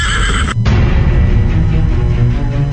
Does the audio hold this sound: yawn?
no